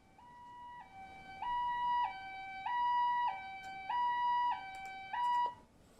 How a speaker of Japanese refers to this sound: 例えば救急車の音を聞いた時に、だんだんと音が大きくなってくる